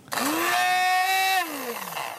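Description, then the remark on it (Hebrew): A loud electric motor spins up quickly, whirs steadily for about a second with a bright mechanical hum, then winds down and fades, like a blender being switched on and off. “ממש לשנות את המכונה, או לקנות בלנדר.”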